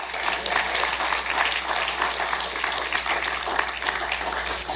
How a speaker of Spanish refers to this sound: ¿No le das un fuerte aplauso al Señor por eso?